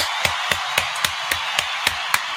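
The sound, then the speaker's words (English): A steady run of about eight sharp claps, evenly paced roughly four per second, sounding over a constant hiss with no voices. “And also give another round of applause to 583 Expressions.”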